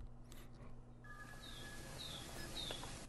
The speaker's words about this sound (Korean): 꾀꼬리. 꾀꼬리. 그래서 궁금해서 음. 꾀꼬리 울음소리를 찾아보았습니다. 네. 청취자 여러분들 같이 들으시면서요.